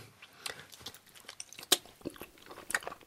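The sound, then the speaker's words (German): Someone bites into a sausage taken from a pot and chews, with wet, crunchy smacks coming in an irregular rhythm, one sharper bite standing out, fairly quiet and with no talking. “Da hast du noch eine Wurst. Koste du zuerst.”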